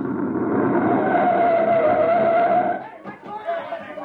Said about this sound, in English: Halt your men. Halt! Hold up there! Hold up! There's a recon car coming up.